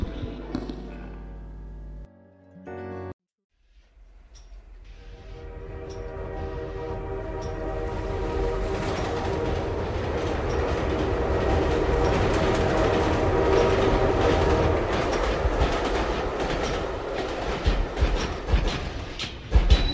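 A train rolls along the rails, its rumble swelling from quiet to loud with a steady clattering rhythm, following a short tonal passage and a brief pause at the start.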